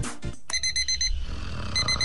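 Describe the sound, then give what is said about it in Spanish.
An alarm clock rings in rapid repeated bursts of high electronic beeping, a short pause, then another burst begins; fairly loud, with no voices. “Roger, Roger, eh? desperta, eh? que tornem els dissabtes al matí. És hora de canviar el despertador.”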